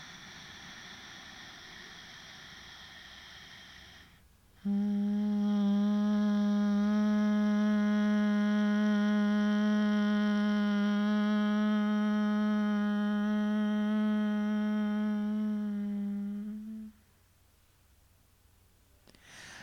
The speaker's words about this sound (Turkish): Şimdi bu gevşemenin daha kalıcı olabilmesi için derin bir nefes alacağız ve verirken ağzımız kapalı M sesini kullanacağız. M sesinin özellikle kafatası boşluğumuzda yarattığı titreşimi hissetmeye çalışacağız.